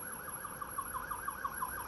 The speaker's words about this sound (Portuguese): Agora está passando uma ambulância aqui.